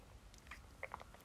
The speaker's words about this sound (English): Uh, let me take a sip of water here.